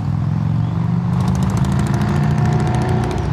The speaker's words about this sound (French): La moto qui passe.